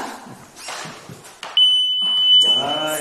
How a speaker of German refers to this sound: Aber selbst bei den Dummies äh, funktioniert die Alarmanlage bereits. Wir probieren das mal aus.